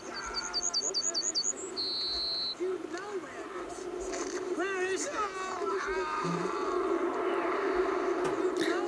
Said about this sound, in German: Habt ihr die Vögel gehört? Äh, ja. Wisst ihr, was das für Vögel sind? Nein. Meine Ahnung, könnten Meisen sein. Äh, ich hab's mit einem Vogelkundler gecheckt. Das sind Goldammern.